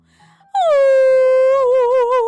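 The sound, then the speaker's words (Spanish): A single long, loud howl by a human voice imitating the big bad wolf at the door of the little pig's straw house in a telling of the three little pigs tale: a steady high-pitched wail that wavers slightly and drifts lower toward the end, held for nearly two seconds. “Cada uno se escondió en su casa, pensando que estaban a salvo, pero el lobo feroz se encaminó a la casita de paja del hermano pequeño y en la puerta aulló.”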